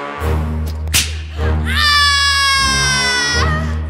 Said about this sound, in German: Sarah Lee schrie fürchterlich auf. Der nächste Peitschenhieb traf ihren nackten Körper.